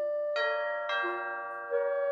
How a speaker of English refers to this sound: Then he took a deep breath and rang the bell.